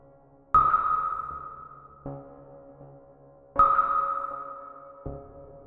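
Two sonar-like scanner pings, each a sharp electronic tone around three seconds apart that rings out and fades slowly, with a softer secondary blip following each one, each ping marking a dot vanishing from the scanner. No voices.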